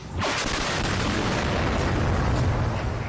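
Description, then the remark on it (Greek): A dense, continuous rumble of booms and bursts, a barrage of explosions and gunfire around the Azot factory in Sievierodonetsk, Ukraine, blending into a heavy roar that holds steady at high loudness throughout, with no voices. “Μπαράζ πυροβολισμών και εκρήξεων γύρω από το εργοστάσιο Αζότ στο Σεβεροντονιέτσκ.”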